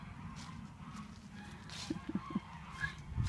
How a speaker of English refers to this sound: There's a commotion with the geese. I'm guessing they're getting fed.